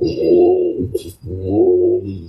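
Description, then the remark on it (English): Someone imitates snoring: two drawn-out, rumbling throaty snores separated by a quick breathy intake, fairly loud and with no other talking. “From my professional experience, a really good sleep is you don't hear me snore.”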